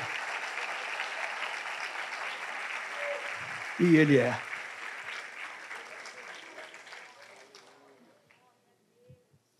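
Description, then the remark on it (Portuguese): A church audience applauds the Lord during a sermon, clapping in a dense, steady wash of applause that gradually thins and fades out, while a man's voice briefly rises over it partway through before near silence at the end. “Pode aplaudir o Senhor, pode.”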